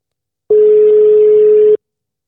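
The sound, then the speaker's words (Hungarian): A single steady telephone line tone hums at one pitch for just over a second, loud, then cuts off abruptly, leaving silence before and after, as a dropped phone call is being redialed after a technical problem. “Itt történt valami ö, kis technikai probléma, akkor én már is ö, hívom”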